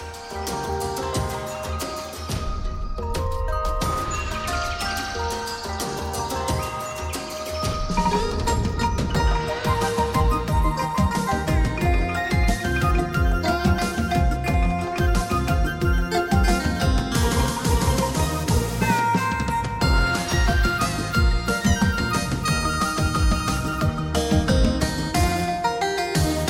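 An instrumental intro of a Vietnamese song plays with layered melodic instruments and a steady beat, starting a bit softer and then swelling fuller and louder after the first several seconds, with no voices.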